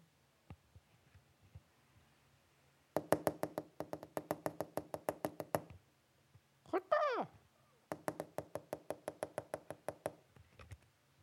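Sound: woodpecker drumming on wood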